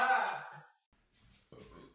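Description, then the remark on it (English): A single loud burp rumbles out at the start and fades within a second, followed by a short pause and then a softer breathy noise. “I just burped.”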